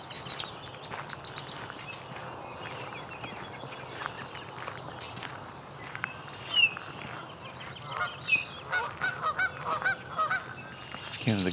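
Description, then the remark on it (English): Geese on a pond honk repeatedly in loud, ragged bursts over a busy background of outdoor ambience and other bird calls, including many red-winged blackbirds, the honks growing more frequent and clustered toward the end. “geese in the uh, pond here.”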